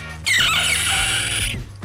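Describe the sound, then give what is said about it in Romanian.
A person shrieks a long, piercing, high-pitched screech in imitation of a pterodactyl, sliding and wavering for over a second before cutting off abruptly, loud. “Hai să încerc un pterodactil. O să sune la fel ca frâna.”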